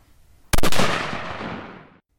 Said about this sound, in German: Und jetzt baut er das Dreibein auf und geht auch schon in den Anschlag. Das hat er schon mehrmals gemacht, das sieht man deutlich. Und jetzt müsste auch gleich der Schuss brechen. Ich denke, die Schussentfernung 80 Meter.